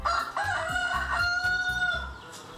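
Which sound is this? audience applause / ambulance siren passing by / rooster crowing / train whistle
rooster crowing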